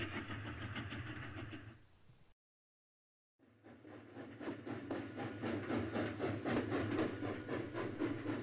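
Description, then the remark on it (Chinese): A very traditional steam train with wooden carriage seats chugs along in a steady, rhythmic engine rumble, cuts out completely for about a second, then resumes slightly louder with dense mechanical clatter and a faint, low whistle underneath. “这是台非常传统的蒸汽火车。车厢座位甚至是以原木打造的，发动装置运作的声响与那微弱的汽笛低鸣，使你不禁困惑：这不是属于你的年代该有的产物。”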